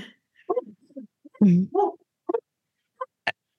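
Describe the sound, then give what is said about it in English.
Dogs bark in a series of short, irregular bursts, some sharp and some lower and rougher, with brief quiet gaps between them. “She's barking at the same thing my dogs are barking at, apparently.”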